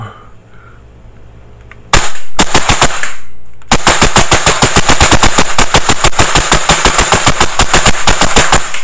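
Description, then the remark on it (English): An electric blowback airsoft rifle fires rapid semi-auto shots: a quick run of sharp, snappy cracks, a brief pause, then a long, steady string of fast, loud shots. “like an electric blowback? This thing sounds super visceral.”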